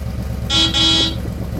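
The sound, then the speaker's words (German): A man honks his car horn twice in quick succession from his car outside a carhop restaurant, snow on the ground, loud, with a brief gap between two sustained blasts over a low idling engine rumble. “Der Mann hupt erneut.”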